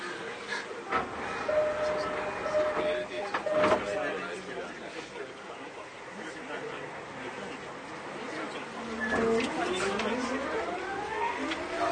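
A JR 209-series commuter train running between Akihabara and Shinjuku, with a steady rumbling roar and a whining motor tone that climbs in pitch partway through as it gathers speed.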